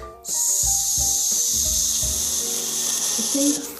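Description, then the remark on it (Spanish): A voice makes a long, steady "shhh" hiss imitating the white noise played for babies, sustained for over three seconds with faint low background sounds underneath. “Esa S es el ruido blanco que se pone a los guaguas. Que es como este”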